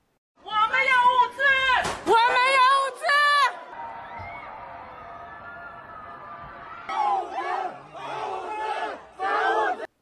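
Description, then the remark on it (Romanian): A crowd of protesters at an evening protest shouts in loud, rhythmic bursts of many voices chanting together, broken by a quieter stretch of murmuring before the chanting surges back. “Toată lumea a protestat masiv.”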